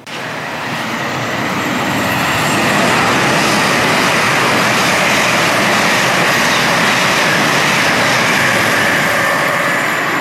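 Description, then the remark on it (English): A train thunders through Platform 2 of a station without stopping, its roar swelling over the first few seconds and then holding loud, a dense rushing rumble with no voices. “Platform 2 does not stop here. Please stand well clear of the edge of Platform 2.”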